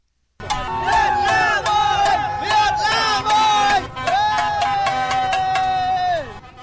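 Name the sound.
football fans cheering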